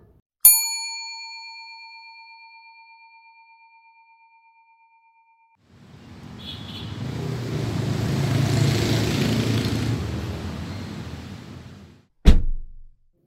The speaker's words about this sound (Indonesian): Udah dong, bentar lagi nyampe tuh mobil. Avanza Silver.